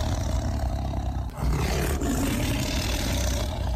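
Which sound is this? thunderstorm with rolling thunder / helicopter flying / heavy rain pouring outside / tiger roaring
tiger roaring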